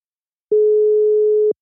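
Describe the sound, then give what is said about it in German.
A single steady telephone ringback tone from an outgoing phone call sounds once, the first ring, a clean mid-pitched beep lasting about a second, loud, with silence on either side and no voices. “Also, ich sag dreimal klingelt Ich sag zweimal.”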